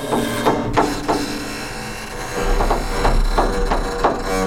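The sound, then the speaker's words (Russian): A machine in a workshop where piano strings are made winds thin wire onto a piano string. It runs steadily, a low motor hum beneath a busy mechanical whir, with soft rhythmic ticks and clatters repeating roughly every half second, moderately loud. “Мастер какую-то машинку включил, и на струну еще тоненькая проволочка наматывается.”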